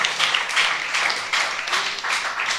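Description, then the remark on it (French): A crowd applauds to wish an injured person a quick recovery, with steady, dense clapping that swells and dips slightly in waves, bright and hissy in tone, holding at a moderate level throughout with no voices. “on va te donner une bonne main d'applaudissement pour que tu ailles mieux bientôt.”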